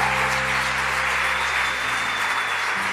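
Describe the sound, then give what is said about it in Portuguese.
Steady applause from an audience applauding God during a sermon, a dense wash of many hands clapping at an even, fairly loud level throughout, with no one speaking over it. “Se você toma posse disso, aplauda Ele mais uma vez.”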